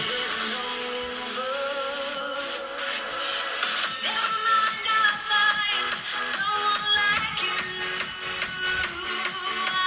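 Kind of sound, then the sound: pop song being played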